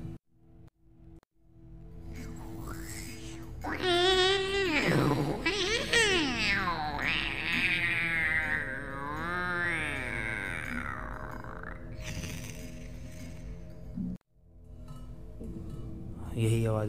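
Cats wail loudly in long, wavering, rising and falling yowls, overlapping one another for several seconds against a low steady hum, with no speech; heard at a hostel during strong winds.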